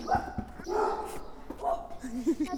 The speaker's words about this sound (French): Quel est votre ressenti euh, en entendant euh, ces aboiements Ces aboiements, écoutez, bah, je me sentais en paix totale quand tout à coup je me suis sentie menacée par une espèce animale. Mais après j'ai compris que ce n'était qu'un chien